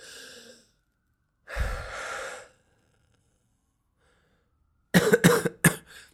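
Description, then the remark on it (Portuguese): A wheezy, rasping breath drawn deep from the chest on leaving a restaurant in snowy weather, after a softer exhale, followed a few seconds later by a quick cluster of three or four harsh coughs. No one speaks. “Parece que eu tenho uma bomba de encher colchões da Decathlon dentro do meu, do meu peito.”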